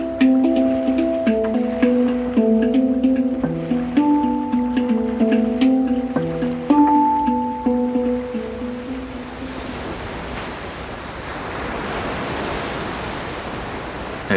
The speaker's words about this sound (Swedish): En hangdrum är ett ganska nytt instrument, en slags metalltrumma som ser ut som en upp och nervänd wok.